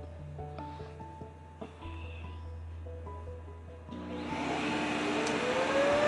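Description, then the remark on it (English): A robot vacuum's dock kicks in to empty it: a few soft electronic tones over a low hum, then a loud rushing suction roar that builds steadily with a rising whine. “You're getting ready to hear the noise of it emptying itself in a second.”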